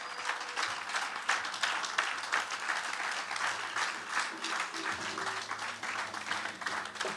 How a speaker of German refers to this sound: Und ich würde sagen, der Applaus war gut. Und wir geben nochmal einen richtig dicken Applaus für unsere Leute, die jetzt nach vorne kommen.